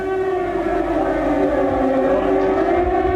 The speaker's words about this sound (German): Um 0.33 Uhr in der Nacht ertönt der Fliegeralarm.